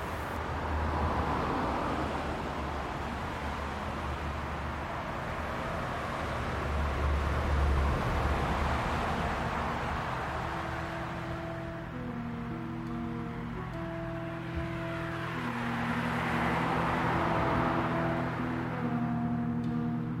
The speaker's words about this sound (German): Und das ist natürlich nicht wirklich ein Naturerlebnis, wenn man am Fluss sitzt, an einer naturnahen Au und den Lärm der Autobahn zuhören muss.